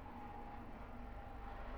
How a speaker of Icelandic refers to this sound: Það er nú ekki oft sem maður heyrir í þyrlum hérna en það kemur nú fyrir